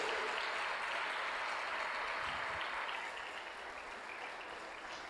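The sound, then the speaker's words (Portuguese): A church audience applauds in praise of God, a dense, steady wash of many hands clapping together that tapers slightly toward the end, with no voices standing out. “Se você concorda, dê o melhor aplauso que você pode a esse Deus Todo-Poderoso.”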